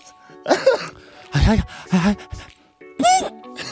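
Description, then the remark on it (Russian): A voice imitates a woman's odd, stifled sneeze, sneezed inward rather than outward: four or five short, breathy vocal bursts with brief pauses between them, sounding half like throat clearing and half like a swallowed sneeze. “Вот так она чихала, понимаешь?”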